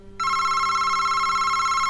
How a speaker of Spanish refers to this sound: Henriette Grobs, tiesa como un paraguas, con una gran tortilla a modo de sombrero puesto en la cabeza, miraba a Josian que, en efecto, oyó que el teléfono estaba sonando.